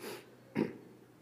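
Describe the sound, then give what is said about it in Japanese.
A person imitates a donkey's bray: two short, rough nasal bursts, a brief one then a louder, lower one, with a quiet pause between them. “またこのロバの鳴き声が非常に何となし物悲しく情けないんですね聞いたことありますか皆さん ちょっと私はあまり得意じゃないんですが鳴き声を真似てみます”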